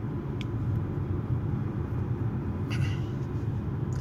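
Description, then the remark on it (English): A steady, muffled low rumble of three lanes of highway traffic heard from inside a moving car, continuous and even, with a couple of faint brief hisses of passing vehicles and no talking. “It's just like traffic. It's just like what the f- three lanes of highway traffic.”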